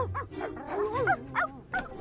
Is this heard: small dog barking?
yes